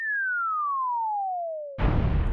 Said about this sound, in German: In einer Parkanlage hat man Mülleimer mit Lautsprechern aufgestellt, die einen lustigen Sound von sich geben, wenn man etwas hineinwirft